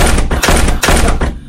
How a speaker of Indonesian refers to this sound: ada suara yang kecil banget guys suara kayak gedor-gedor pintu